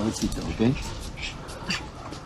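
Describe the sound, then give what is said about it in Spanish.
Cats hiss and yowl in a brief scuffle, with several sharp, agitated bursts in quick succession over a couple of seconds. “No, no pelees, Uma, ¿eh?”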